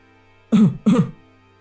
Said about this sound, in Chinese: 老小虎咳嗽两声，想让声控灯再亮起来，但并没有反应。